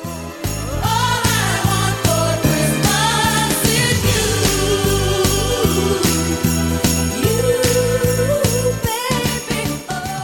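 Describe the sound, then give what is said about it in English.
An upbeat Christmas pop song plays loudly, with steady pounding chords, sleigh bells jingling throughout, and a female vocal line soaring over the music with a chorus of backing voices around her, and no talking. “… on the Rise of …”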